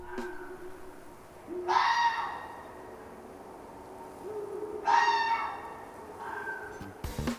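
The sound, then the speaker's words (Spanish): A red fox (Vulpes vulpes) gives two eerie, drawn-out screams a few seconds apart, each a harsh wavering cry that fades out, with a fainter call between them against a quiet outdoor background. “Y aunque este sonido perfectamente se podría usar en una película de miedo, en realidad viene de B, un zorro rojo, cuyo nombre científico es Vulpes vulpes.”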